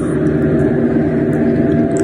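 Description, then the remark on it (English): Steady, dense low rumble of road noise from inside a moving car, loud and continuous with no breaks, the engine and tire drone filling the whole cabin. “So basically, you're hearing me vlog in the car.”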